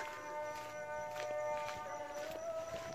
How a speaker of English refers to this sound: that's the muezzin, the call to prayer.